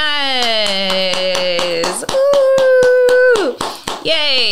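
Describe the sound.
Steady, rhythmic hand clapping, about a dozen sharp claps close by, mixed with drawn-out cheering voices that hoot and sing along over the applause.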